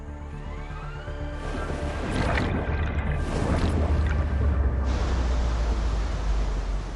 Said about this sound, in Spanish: Empieza a bombear. Recibido. Encendiendo bombas, ¿vale? Sí.